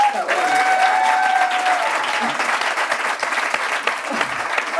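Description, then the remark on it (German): An audience claps steadily for about five seconds, a dense, even wash of applause with a few faint tonal whistles or cheers riding on top early on. “Ihr dürft klatschen.”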